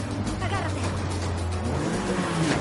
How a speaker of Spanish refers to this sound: El sicario circula por una carretera paralela. Mari dobla a la derecha. El sicario conduce por la misma carretera.